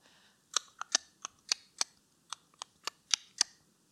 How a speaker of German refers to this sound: Was könnte das sein? Das ist das Klopfen an die Zimmertür.